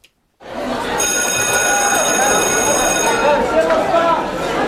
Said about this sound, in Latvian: Zvans uz stundām skolā šodien skan kā ierasts, un ārēji manīt neko nevar.